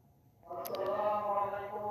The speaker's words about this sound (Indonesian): Oke, itu suara masjid dekat rumah gue.